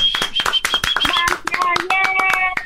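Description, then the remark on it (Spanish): Brisk, sharp hand clapping for under three seconds, many quick irregular claps packed together like a small round of applause, with a bright, steady high tone ringing alongside. “Hay mujeres que captan eso, que son inteligentes, tú eres una de ellas, te mando un abrazo y te doy un aplauso.”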